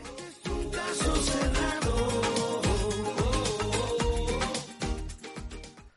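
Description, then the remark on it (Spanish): The main theme song of a TV courtroom show plays loudly and steadily, with punchy low drum hits marking a driving beat beneath bright, layered melody; no one speaks over it. “El primero, la música, el tema principal que vamos a dejar de escuchar a continuación porque lo consideramos temazo”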